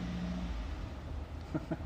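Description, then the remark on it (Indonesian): A car passes outside, in front of a house, a steady low engine rumble that holds fairly loud throughout, with a couple of brief clicks near the end and no talking. “aduh tadi motor ini mobil lagi”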